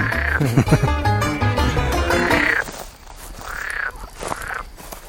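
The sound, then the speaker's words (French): Several frogs croak near a garden pond, opening with a dense overlapping chorus, then trailing off into a few separate drawn-out calls that rise and fall in pitch. No one speaks. “La cohabitation avec les grenouilles, hein, je pense pas qu'elles soient consommatrice de courge.”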